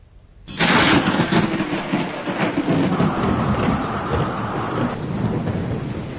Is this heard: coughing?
no